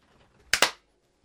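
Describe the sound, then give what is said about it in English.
Two sharp hand claps in quick succession, loud and crisp with a bright snap, clapped to mark the start of a recording, standing alone against near silence with no talking. “We're getting there with the old claps, aren't we?”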